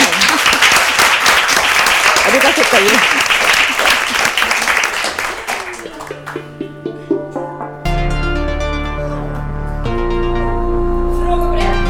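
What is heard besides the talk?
audience applause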